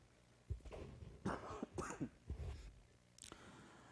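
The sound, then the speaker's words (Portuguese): A preacher has a fit of harsh coughing during a sermon, several rough bursts in quick succession with a final short cough after a brief pause, and no talking. “Meus irmãos, essa tosse aqui não é Covid, não, tá?”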